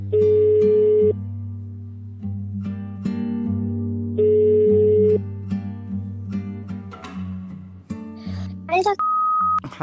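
Two long ringback tones of an outgoing phone call to a former intern of a health centre in Kongsberg, spaced a few seconds apart over a low hum, followed by clicks and a brief higher beep at the end.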